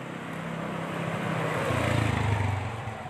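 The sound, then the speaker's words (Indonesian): A motorcycle engine drones past, its low rumble swelling toward the middle and easing off slightly at the end, with no talking over it. “iki si ada motor lagi skip sebentar ya kita tunggu”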